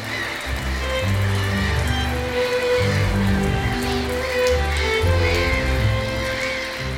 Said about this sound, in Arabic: ولديها حركات طريفه منها ما اسميه رقصه المطر فتخبط اقدامها بالصخور مقلده صوت هطول المطر